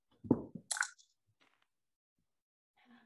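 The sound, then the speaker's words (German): Dice are rolled again for a check, rattling and clattering in a quick burst of sharp, hard knocks, then settling into near silence, with only faint rustling at the very end; the roll comes up five. “Alles klar, dann würfel nochmal plus lavieren, bitte.”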